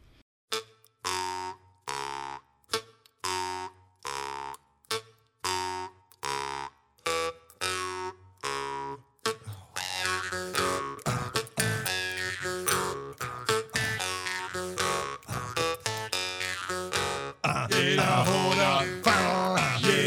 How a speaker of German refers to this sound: Und als Musik habe ich ausgesucht, ja, Maultrommelmusik. Werden wir Ja, hören, wie euch das gefällt.